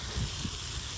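A high-pressure hose at a gas station sprays water to wash bikes, in a steady, loud hissing rush that stays constant throughout the short stretch, with no voices and a faint low rumble underneath.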